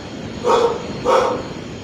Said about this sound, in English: We now have dogs as well as telephone. Oh God, I hope it doesn't come in here. sounds big.